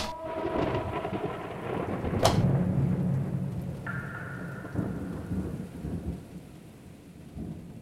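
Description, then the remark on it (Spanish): Heavy rain pours steadily while deep thunder rumbles underneath, with one sharp crack partway through; the storm is loud throughout, with no voices. “El techo se encontraba corroído por efecto de las constantes lluvias ácidas en la ciudad”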